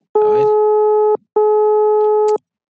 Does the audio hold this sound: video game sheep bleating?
no